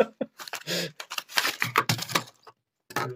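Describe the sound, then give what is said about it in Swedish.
Dice clatter and tumble across a hard tabletop in a quick burst of sharp clicks and rattles, then settle, followed by a brief second rattle; dice rolled during a tabletop game. “Slå en tärning.”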